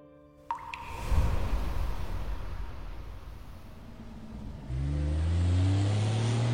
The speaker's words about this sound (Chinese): 一辆布满沙尘的汽车行驶在泥泞的路上，显得力不从心。疲惫的不仅是车，还有开车的人。